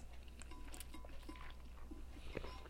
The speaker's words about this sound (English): Let me take a sip.